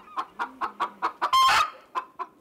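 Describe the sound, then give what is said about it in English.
A blue hen chicken clucks in a steady series of short, repeated calls, with one louder, harsher squawk-like burst in the middle, clear with no talking. “The blue hen chicken is the state bird of Delaware”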